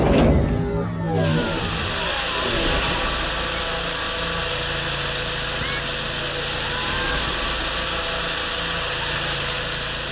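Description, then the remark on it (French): A pneumatic door opens slowly by itself with a steady, loud hiss of air over a low mechanical hum, sustained for about nine seconds after a brief initial clunk. “Et la porte à air comprimé qui s'ouvre toute seule”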